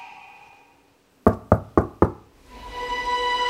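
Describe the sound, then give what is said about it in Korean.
Four sharp, evenly spaced, loud knocks on a room door ring out, followed by a faint tonal hum in the background; no one speaks. “노크 소리가 들렸어요.”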